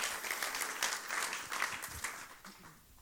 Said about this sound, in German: Ich darf dich nach vorne bitten. Einen Applaus für sie bitte.